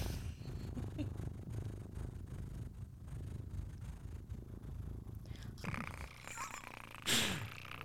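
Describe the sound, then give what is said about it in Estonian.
Someone imitates a cat's purr, a steady low rumbling vibration that rolls on for several seconds, ending with a brief breathy burst. “hea küll ikkagi aitab küll, sai nurru minutid ka läbi.”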